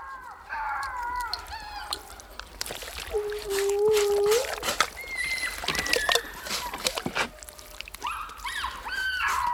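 Four puppies whine and howl while being lifted by the scruff of the neck out of their wooden box, their high, wavering cries rising and falling and overlapping one another, with scuffling and rustling noises between the calls.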